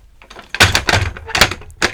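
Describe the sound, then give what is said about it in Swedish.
A few dull thumps and creaky knocks of a self-built armchair as someone shifts their weight in it, coming in uneven bursts with no talking. “Ja, och vi har byggt två fåtöljer. Kan inte du skaka lite på rumpan? Nu rör jag här på”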